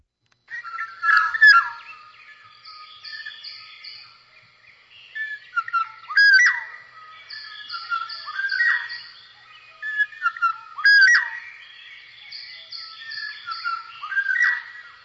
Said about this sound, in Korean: 이게 꾀꼬리 소리군요. 그렇죠. 네. 참 네. 좋아요.